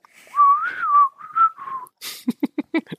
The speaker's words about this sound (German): Ich höre immer nur so ein Pfeifen hier so. Ich kann nicht gut pfeifen.